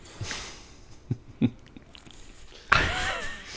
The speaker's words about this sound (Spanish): El trago de cerveza.